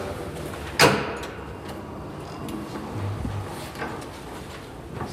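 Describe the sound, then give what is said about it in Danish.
Electric sliding doors open with one sharp clunk near the start, followed by a steady, low mechanical whir and faint background noise. No one speaks. “Jeg plejer, at vi går en tur ned af, herned og kigger, om hun skulle sidde her og nede ved, ved, ved skydedørene de elektriske døre.”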